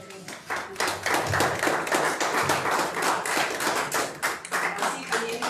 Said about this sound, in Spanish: vamos, quiero que acompañemos al Ministerio de Alabanza con esas palmas y con esas voces para poder alabar y glorificar al Señor.